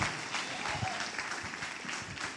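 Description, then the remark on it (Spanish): A church audience claps loudly and steadily, a dense wash of many hands for a couple of seconds, with faint voices mixed in beneath, giving a strong round of applause to the Lord during a sermon. “Vamos a darle un aplauso fuerte al Señor, el Señor que responde y el Señor que manda fuego purificador.”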